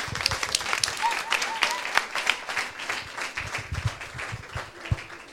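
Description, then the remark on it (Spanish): Audience applause for the speaker's helpers: a dense, steady patter of many hands clapping at once, fairly loud and sustained for several seconds with no one speaking over it. “Un aplauso para mis ayudantes.”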